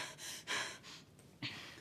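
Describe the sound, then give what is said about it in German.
Rapid, heavy breaths in quick succession, sharp panicked gasps and airy exhalations, about four or five bursts in under two seconds, with no talking. “Ey, ruhig atmen. Ruhig atmen.”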